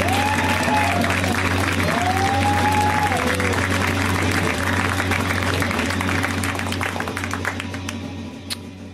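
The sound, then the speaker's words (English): A theater audience at a comedy show applauding steadily as comedian Alex Cole is introduced, with scattered cheers and whoops rising above the dense clapping, loud and sustained before gradually thinning out at the end. “Give it up for Alex.”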